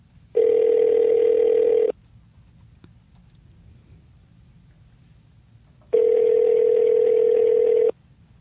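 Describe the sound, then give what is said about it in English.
A telephone ringback tone sounds twice as a phone call is placed, each a steady electronic buzz lasting about two seconds, separated by a long quiet gap, loud and clear with no voices. “Why don't we get her on the phone right now?”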